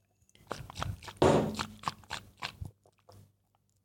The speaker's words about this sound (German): Kurzen Schluck Wasser.